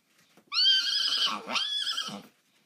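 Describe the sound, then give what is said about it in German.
A pony named Bär at a riding stable lets out a single loud, shrill whinny lasting nearly two seconds as it rears up, its pitch wavering and dipping midway before trailing off, with no talking around it. “Bär bäumte sich auf und versuchte nach uns zu schnappen und galoppierte wieder davon.”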